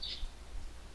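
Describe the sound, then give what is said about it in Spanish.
A bird chirps outdoors in two brief, high-pitched bursts, one at the start and one at the end, fairly faint over a low background hum, with no one speaking. “No, es un pinche pájaro por acá afuera.”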